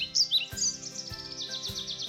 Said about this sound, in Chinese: 小鸟开始唱歌了。哇！孩子们都陶醉了，小鸟唱歌可真好听啊！